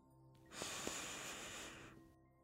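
A single long, steady inhale drawn in through the nose, airy and hissing, lasting about a second and a half against near silence, soft, taken during a breathing exercise.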